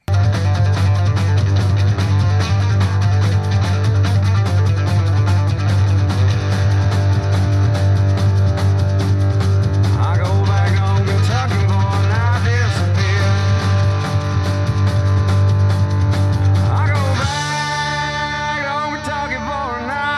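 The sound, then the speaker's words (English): A loud, dense rock song with slide guitar played with many open trills and hammer-ons, its notes gliding and bending over a heavy, steady bass; the band drops out near the end, leaving the sliding guitar lines more exposed. “like he's he's playing slide, but he's playing a lot of open trills.”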